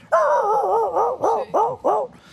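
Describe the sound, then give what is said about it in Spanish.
A person imitates a dog barking at nothing, drawing out a wavering, whiny bark before three short, rising yelps in quick succession, all fairly loud with no other sounds. “Y le ladra a la nada misma, le ladra al perro”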